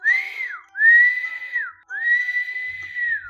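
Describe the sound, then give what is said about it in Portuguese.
Someone whistles in imitation of a dove to call children: three sustained, clear phrases, each rising slightly then gliding down at the end, with short pauses between and no talking. “Ela aprendeu a cantar, a soviar e chamar as crianças.”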